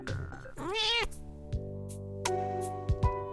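A kitten gives a single rising and falling meow, fairly loud, followed by a steady tonal hum with a few short knocks.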